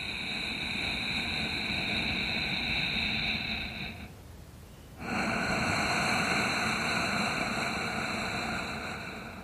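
Slow, deep human breathing of a breathing teacher, fairly loud: a long drawn breath of several seconds, a brief quiet pause, then another long, airy breath. No talking.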